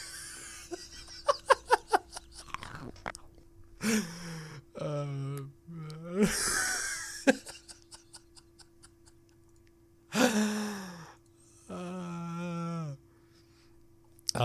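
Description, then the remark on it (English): A rapid run of squeaky, rubbery crunches of someone chewing corn starch, followed by bursts of laughter, gasps and breathy vocal sounds, with a steady low hum underneath. “Yeah, and it makes a really weird noise when people eat it. It almost sounds like you're chewing on rubber.”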